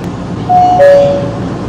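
Two clear descending chime tones ring out over a steady low rumble of a metro train at a station platform, with no voices present.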